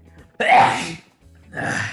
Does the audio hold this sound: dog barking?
no